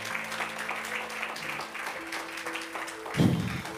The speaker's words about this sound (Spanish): Hay que proponérselo y Dios obrará. Dale fuerte el aplauso a Dios, por favor.